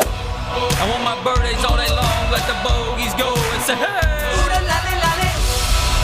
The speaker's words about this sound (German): Ansonsten ähm, habe ich noch, äh, ach komm, ein, einen, kleinen, einen kleinen Jingle mache ich hier noch für dich heute.